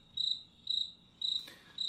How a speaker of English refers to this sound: I was hoping you'd insert insert crickets